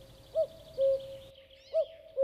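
A common cuckoo calls its two-note "cuck-oo" twice in steady rhythm, clear, with faint higher birdsong in the background.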